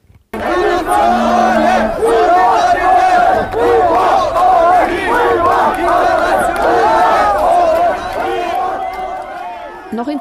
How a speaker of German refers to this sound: Trotzdem bricht der Zug um 11 Uhr auf. We demand our rights, skandierend, zieht sich so ein Zug durch Dreiskirchen, danach durch Guntramsdorf, Laxenburg, Biedermannsdorf und Fösendorf.